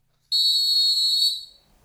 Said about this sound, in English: Blow the whistle time.